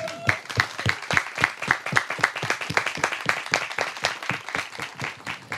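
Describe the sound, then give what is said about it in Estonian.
Sustained applause from an audience of roughly eighty to a hundred people at an Estonian National Youth Council event on youth mental health, applauding themselves and the experts; dense overlapping claps at a brisk, steady rhythm that stays fairly loud throughout, with no talking over it. “tehke endale ja meie ekspertidele meeletu suur aplaus, aitäh”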